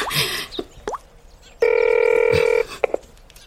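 A phone rings with one steady electronic tone lasting about a second, loud, after some brief clicks and clatter, as a mother's call goes unanswered. No one picks up, and no voices are heard.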